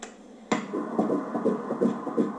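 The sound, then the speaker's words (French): A fetal heartbeat played by a gynaecologist on an ultrasound monitor at the first official ultrasound scan: fast, steady whooshing pulses over a hiss of static, starting abruptly and continuing loudly with no voices. “Le gynéco leur fait entendre le cœur du bébé qui bat.”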